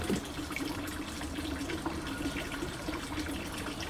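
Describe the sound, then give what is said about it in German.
Water trickles and gurgles steadily in a shallow irrigation channel dug as a ditch in an open field, a continuous, fairly quiet burble with no voices. “Und so brünnelt es. Ja, so tröpfelt es vor sich her.”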